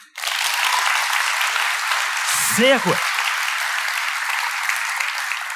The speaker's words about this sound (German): Ja, also wir üben das vielleicht mal, wir machen das in Etappen, oder? Also klatschen, wie würde es tönen, wenn ihr jetzt voll würde klatschen? Eins, zwei, drei.